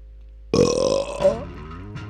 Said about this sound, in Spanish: ¡Eructín!